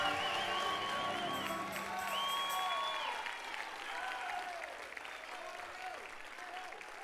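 A large audience claps and cheers loudly and steadily in praise of God, with shouts and whoops rising over the sustained applause, which fades slightly toward the end.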